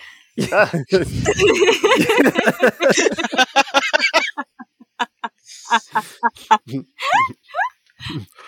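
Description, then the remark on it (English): A voice imitates a squawking bird with a loud flurry of cackling squawks, then a run of short clucks and a few rising, sharper squawks near the end. “that bird is talking.”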